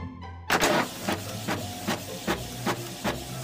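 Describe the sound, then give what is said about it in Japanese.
A printer printing data onto paper starts up with a loud mechanical whir, then keeps running while its feed mechanism clacks in a steady rhythm, roughly every half second, over a constant hum. No one speaks. “わざわざデータを紙で印刷して”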